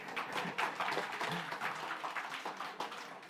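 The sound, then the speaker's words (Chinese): A church audience at Shanghai City Life Church applauds steadily for a few seconds, a dense, crackling wash of many hands clapping at an even, moderate loudness with no voices standing out. “吝啬你们的掌声哈！”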